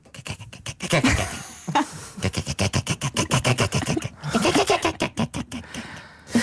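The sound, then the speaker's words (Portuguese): A person imitates cats chattering while watching a fly at a window, making rapid clicking, stuttering bursts in quick rhythmic runs with brief pauses between them, fairly loud, with a little laughter. “que é aquele som, não sei se já viram isso, os gatos estão a olhar para uma janela e está uma mosca. Hum, hum, hum, e os gatos começam a olhar para a mosca e fazer assim.”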